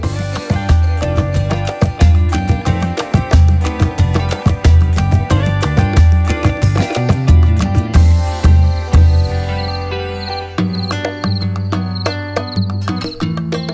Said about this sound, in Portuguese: Grilo, grilo.